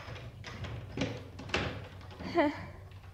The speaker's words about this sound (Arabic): وفتحت لي الباب